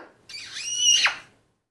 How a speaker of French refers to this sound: Un perroquet. bravo, bravo. C'est un perroquet, mais c'est pas n'importe quel perroquet.